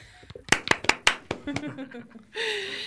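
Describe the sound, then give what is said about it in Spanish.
A short burst of about half a dozen sharp hand claps in a quick, uneven rhythm, welcoming guests from la tabla roja as a new permanent section of a show, with voices and light laughter around them, then a steady hiss of noise. “Ellas ¿Aplausos?”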